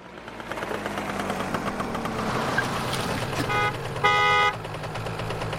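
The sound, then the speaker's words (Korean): A car engine rumbles steadily as a vehicle approaches a mail carrier on Maruji Pass, then its horn sounds in two short, loud toots, with no one speaking. “우편 배달부는 제시를 지나 마루지 고개를 지나다 달려오는 자동차와 마주친다.”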